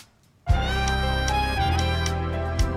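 After a brief silence, a harmonica comes in abruptly with sustained, reedy notes over a steady musical backing with light percussion hits, holding at an even, moderate level with no voices.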